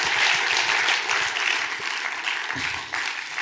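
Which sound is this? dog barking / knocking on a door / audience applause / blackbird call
audience applause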